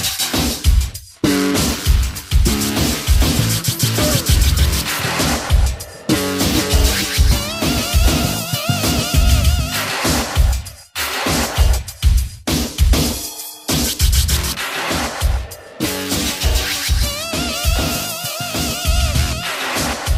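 A loud industrial hip hop dub track recorded in 1989, with a heavy, pounding beat, dense metallic textures and sudden dub-style dropouts where the mix briefly cuts out before slamming back in.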